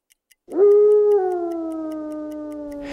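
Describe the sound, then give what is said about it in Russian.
A dog lets out a single long, mournful howl that rises quickly, then holds and slowly sinks in pitch, loud, with faint steady ticking underneath. “Сквозь шторы вдруг проник долгий тоскливый звук.”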